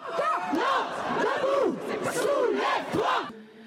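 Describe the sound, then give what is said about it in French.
A street protest crowd in Nantes, France, chanting loudly at a spontaneous demonstration against the reform and Emmanuel Macron's remarks, many voices rising and falling together in a rhythmic, shouted refrain that continues steadily throughout. “Dans tout le pays, des manifestations spontanées se sont organisées pour réagir aux propos d'Emmanuel Macron.”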